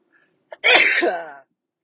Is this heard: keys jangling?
no